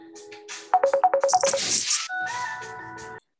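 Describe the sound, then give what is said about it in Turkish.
A phone ringtone plays: a quick run of about seven short electronic beeps, then a brief burst and a few sustained melodic tones before it cuts off. No one speaks. “Bugün böyle sürekli bir telefon trafiği oldu.”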